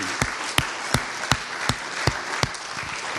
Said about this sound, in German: Ja, lasst uns mal Jesus einen Applaus geben.